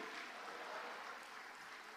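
A crowd claps for the Lord during a sermon in a dense, steady wash of applause that holds at an even, fairly loud level for two seconds, with no voices rising above it.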